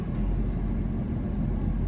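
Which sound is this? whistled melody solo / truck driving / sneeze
truck driving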